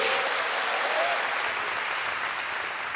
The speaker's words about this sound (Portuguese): Quem entendeu, dá uma salva de palmas ao Senhor. Então, é mais alto, né? Faz barulho aí, dá um glória a Deus.